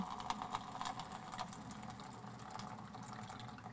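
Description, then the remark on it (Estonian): Boiling water set to 100 degrees streams steadily from an instant hot-water dispenser, a continuous hissing pour over a low mechanical pump hum, fairly loud for a few seconds with no talking. “ja samal hetkel, kui vajutad, tuleb vesi”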